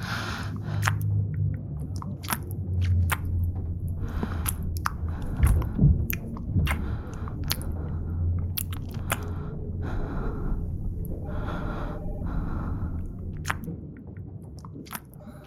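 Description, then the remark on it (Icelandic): Wet, crunchy chewing of food as someone tastes it goes on for several seconds, with irregular sharp crunches and smacking bites over a low steady hum, plus a brief breathy gasp partway through. “Ok, en leið mér samt að smaka það meðan við erum hérna.”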